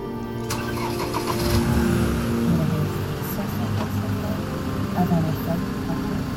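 A car engine cranks and catches about half a second in, then settles into a steady, low rumbling idle that runs for several seconds with slight swells in revving.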